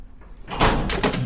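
A door slides or swings open with a broad, rumbling scrape, followed moments later by a second short burst of noise as a light switch is flicked to turn on a light; fairly loud, with no voices.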